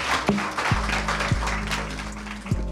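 A crowd claps steadily for a panel at the close of a conversation, a dense, continuous patter of many hands at moderate loudness, with a low hum underneath and no voices.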